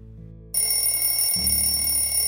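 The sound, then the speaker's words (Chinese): An alarm clock bell rings loudly and continuously, a bright metallic jangle that starts abruptly after a brief low hum and keeps going steadily, with no talking, waking the little dinosaur Lulu in a children's story. “闹钟响了，可是小恐龙露露很不想起床。”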